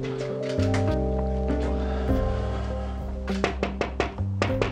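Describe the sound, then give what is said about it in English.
A quick run of about seven sharp knocks on a front door near the end, over a steady low droning hum that fills the whole clip. “Anyway, I knocked on the door.”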